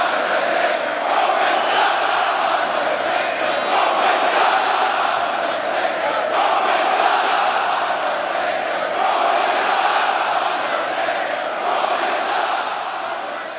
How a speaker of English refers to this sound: It, the Roman sucks chants were getting louder and louder. And I was like, wow, this is amazing. That was one of my favorite moments I've seen live in WWE.